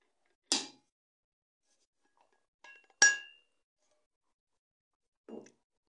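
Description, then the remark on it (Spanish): A few sharp glass clinks ring out with pauses between them, bright and short, the middle one loudest with a brief tonal ring, as a glass of water is picked up and set down while the speaker drinks more water. “Déjenme tomo más agua.”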